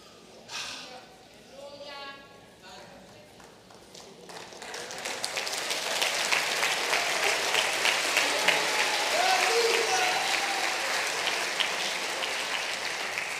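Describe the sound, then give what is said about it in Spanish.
A voice speaks briefly, then applause swells in from quiet and settles into a loud, steady, dense stretch of clapping that continues to the end. “Esos aplausos sonaron como esos aplausos mecánicos que...”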